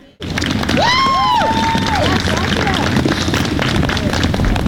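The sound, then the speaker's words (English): A large outdoor crowd in a parking lot with a tent, a couple of blocks from the Capitol, murmurs and cheers while waiting for the mayor's announcement of a new bus rapid transit system, with a few raised voices whooping near the start over a steady, dense wash of chatter and noise. “Normally, this lot is empty, but today, it's filled with a tent and crowds of people waiting to hear the mayor's announcement of the new upcoming bus rapid transit system.”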